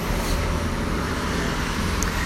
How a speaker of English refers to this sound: I hope you can hear me over the cars passing me as I'm walking to the train.